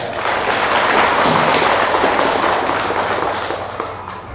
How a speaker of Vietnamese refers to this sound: thì xin hãy dâng cao một tràng vỗ tay thật lớn